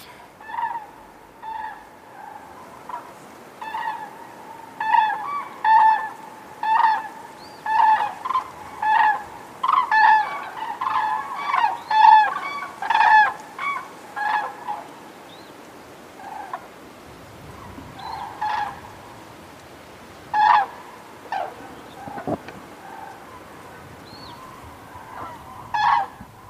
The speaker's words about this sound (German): haben wir auch von den Kranichen noch eine Aufnahme mitgebracht. Hört genau hin, auch das Pfeifen von den Jungkranichen ist auf dieser Aufnahme drauf.